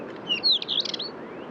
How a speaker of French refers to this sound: Alors voilà un long champ en vol du Monticole de roche.